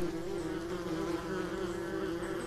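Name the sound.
wasp buzzing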